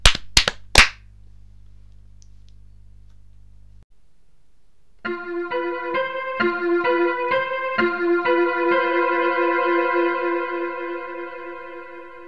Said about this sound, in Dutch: Wacht, wacht nog niet klappen. Als we drie keer hebben geklapt, dan begint ons eh, spannend geluidje. 3, Drie, twee, één.